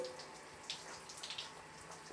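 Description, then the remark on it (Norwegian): Running water pours steadily from a shower, with brief splashy bursts as fingers sticky with orange juice and an orange are rinsed under the stream. No one speaks. “Du skyller deg bare fingrene. Skyller appelsinen litt.”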